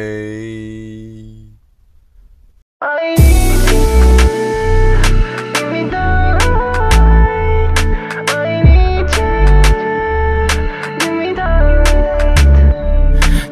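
A new rap song used as an ending theme: a sustained synth tone fades out, a short silence follows, then a loud hip-hop beat kicks in with heavy bass thumps and crisp percussion hits, with no vocals yet.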